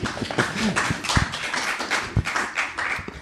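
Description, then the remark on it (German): A small live audience of about 200 people at the Unperfekthaus in Essen claps and taps in a dense, irregular patter of sharp hits, steady throughout, with a few louder smacks standing out. “Ähm, wieder hier im Unperfekthaus, wo wir uns ja gerade auch befinden, mit Live-Publikum. Vielleicht könnt ihr euch mal bemerkbar machen ein bisschen.”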